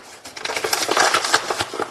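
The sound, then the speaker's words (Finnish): Three decilitres of sugar being poured into 200 grams of microwave-melted Valio butter in a bowl makes a steady, gritty rustling hiss with many tiny crackles, running for about two seconds at moderate loudness with no voices. “Ja nyt sitten mitataan tänne voin sekaan kolme desiä sokeria”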